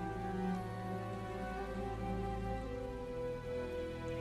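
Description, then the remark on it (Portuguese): Steady rain falls throughout, a continuous even patter with no pauses, layered under a low sustained droning hum. No one speaks. “Com essa chuva não deve ter ninguém caminhando por aí.”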